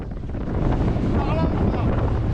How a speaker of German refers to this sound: Das kleine Transportboot kämpft sich durch die aufgewühlte See. Der Wind weht kräftig aus Westen.